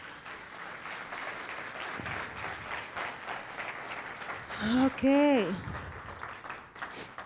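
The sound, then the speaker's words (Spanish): A church audience applauds for God with steady, dense clapping throughout, joined by a brief voiced exclamation and cheering partway through. “¿Le puedes dar un aplauso a Dios?”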